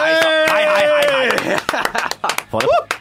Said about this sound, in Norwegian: Gi en varm applaus